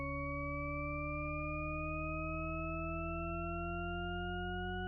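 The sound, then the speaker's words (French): A steady, continuous tone made of stacked pure pitches that all glide slowly upward together, giving the impression of a pitch that keeps rising without ever getting higher: researcher Roger Shepard's scale illusion, reworked by Jean-Claude Risset, the same sound looped, with no voices. “C'est ce que tend à nous faire croire l'illusion sonore que vous êtes en train d'écouter. La gamme du chercheur Roger Shepard.”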